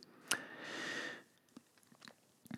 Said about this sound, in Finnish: pieni hörppy, hörppy vielä tähän loppusuoralle, niin otetaan vielä pienet viimeistelyt.